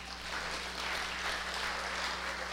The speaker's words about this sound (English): If I wouldn't have told you to give God a hand, you might have not even clapped.